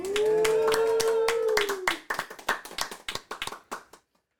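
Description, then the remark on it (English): A small live studio audience applauds: brisk clapping with a long, sustained vocal cheer over it, then the claps thin into a few scattered ones and stop after about four seconds. “let's hear it from the studio audience”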